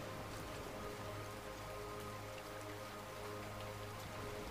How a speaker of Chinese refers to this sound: 你好像听见不远处有细密的阵阵雨声传来